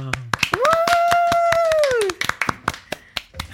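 Rapid, uneven hand claps of applause from a few people, with a loud sustained whoop or cheer rising over the clapping before it thins into scattered claps.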